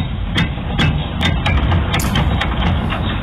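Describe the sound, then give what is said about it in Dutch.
A mechanical cranking sound of a sun awning being wound open, with a steady low grinding rumble and sharp clicks repeating about every half second, fairly loud. “Is dit inderdaad het geluid van een zonnescherm dat opengedraaid wordt? Jawel, dat is kans correct.”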